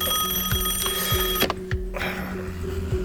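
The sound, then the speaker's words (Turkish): A home telephone on a bedside table rings at three in the morning with a steady, high electronic tone, pulsing in a regular rhythm about twice a second. The ringing is loud and continuous, with no voices. “Gecenin üçünde telefonun sesiyle uyanıyorum.”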